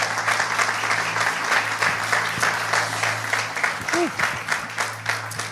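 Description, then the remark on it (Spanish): A crowd applauds steadily for Jesus after a prayer, dense overlapping clapping filling the whole stretch at a fairly loud, even level, with a faint low hum beneath and a brief vocal cheer rising near the end. “Vamos, se lo puedes dar fuerte a Jesús.”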